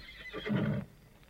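A horse neighs once in a short, loud whinny that rises and falls over about a second, with a shaky, vibrating tone that cuts off abruptly, leaving faint background noise.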